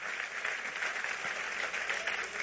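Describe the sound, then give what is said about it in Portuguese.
A crowd claps for the Lord steadily in a dense, continuous wash of applause, bright and even in loudness from start to finish with no voices standing out. “Então aplauda ao Senhor, porque isso é lindo.”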